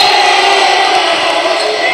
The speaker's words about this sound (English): And you can hear the crowd.